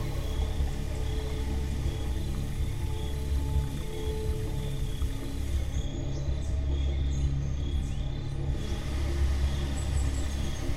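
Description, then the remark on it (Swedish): Crickets chirr continuously in a dense night chorus, layered over a steady low rumble. No one speaks. “Syrsorna verkligen dånar i öronen på dig.”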